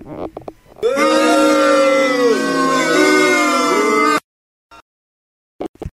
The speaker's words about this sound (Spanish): Ahí estuvieron los abucheos para mi parte.